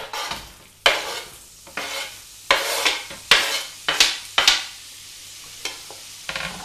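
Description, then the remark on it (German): Onions and bacon sizzle as they fry in oil over high heat in a frying pan under a steady hiss, broken by about eight quick, loud scraping strokes as they are stirred and spread around the pan at an uneven rhythm. No one speaks. “Dann hauen wir jetzt die Zwiebeln mit dem äh, Speck zusammen in die Pfanne.”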